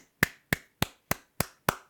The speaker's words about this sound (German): Ja, äh, warte, gib mal Applaus.